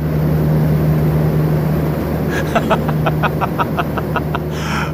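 A heavy, steady mechanical roar with a low hum fills the space, joined halfway through by a rapid series of clicking or rattling taps, from a rotating glass furnace holding 20 tons of molten glass, spinning at full speed beneath a football stadium.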